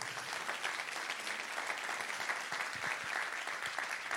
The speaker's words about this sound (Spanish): ¿Cuántos pueden dar un aplauso fuerte al Señor?